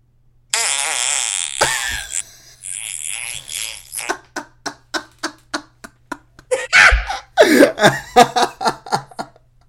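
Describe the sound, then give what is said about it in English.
A recorded fart sound effect called Happy Bee, played from a phone: long squeaky, pitch-bending toots give way to a rapid rhythmic string of short sputtering bursts, loud, with a speech-like cadence and no talking. “Wait, I have talking farts.”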